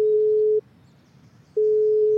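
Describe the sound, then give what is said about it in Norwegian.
A telephone ringback tone heard while placing a call to a father: a steady mid-pitched beep that sounds, falls silent for about a second, then sounds again, clear with no voices. “Ja, så ringer jeg pappa så lenge.”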